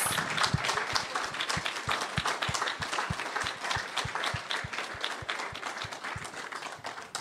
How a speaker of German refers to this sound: Lass uns einfach noch einen Lobpreis, Applaus geben für Jesus.